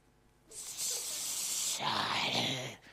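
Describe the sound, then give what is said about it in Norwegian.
A person imitates the snake of the Genesis story with a long, loud hissing breath, then shifts into a lower, voiced hiss, lasting about two and a half seconds. “I mitt hode i hvert fall, så, så kommer slangen sånn.”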